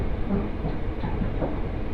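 A steady rumble of a Mizushima Rinkai Railway train running on rails from Kurashiki-shi toward Mitsubishi Jiko-mae in Japan, recorded from inside the carriage, with continuous low-frequency noise and faint rhythmic clatter throughout, no voices.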